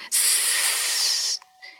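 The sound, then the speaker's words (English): A person imitates a rattlesnake with one long, steady, breathy hiss lasting over a second, fairly loud, then a faint trailing breath. “But rattlesnakes are smaller than alligators, and they live in the mountains, and they sound like this.”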